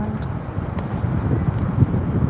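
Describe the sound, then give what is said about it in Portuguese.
Ocean waves at a beach make a steady, low rushing roar, fairly loud, swelling gently toward the end and mixed with a breezy hiss. No one speaks. “Hoje nós estamos filmando numa praia e a vida tá rolando aqui do lado.”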